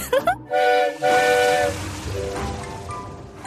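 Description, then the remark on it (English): The steam engine Nia sounds her whistle in two loud blasts, the second held longer, followed by chuffing and rumbling as she moves along toward Vicarstown Bridge. “I don't think she likes steam engines very much.”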